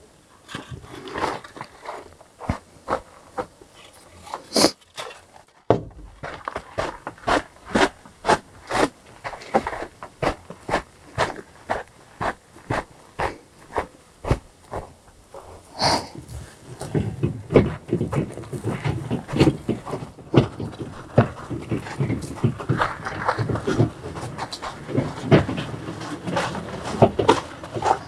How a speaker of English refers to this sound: So I'm going to muck out, and at some point, you may hear some of the horses.